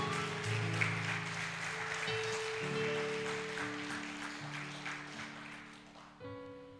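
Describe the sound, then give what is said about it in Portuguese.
A church audience applauds the Lord steadily for several seconds, a dense wash of clapping over sustained keyboard or organ chords that shift underneath, fading slightly before a new chord swells at the end. “Então aí, dá um aplauso ao Senhor aí.”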